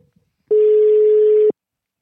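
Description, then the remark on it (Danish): A single steady ringback tone from an outgoing phone call, lasting about one second, clear and fairly loud, with silence before and after and no voices. “Vi skal også lige høre om, om han, øh, han er skuffet af nogle af de spillere, han har set i Tyrkiet tidligere, så ham ringer vi til lige om et øjeblik.”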